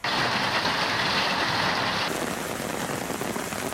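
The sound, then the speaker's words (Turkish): A steady, dense roar of heavy rain pouring down in a weekend downpour in Turkey, loud with no pauses, its hiss shifting slightly in tone partway through. No one speaks. “Hafta sonu yurdun pek çok noktasında kuvvetli sağanak yağış etkiliydi.”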